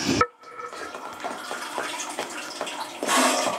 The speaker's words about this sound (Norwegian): Lyden du hører nå, er tatt inne i ubåten Nautilus.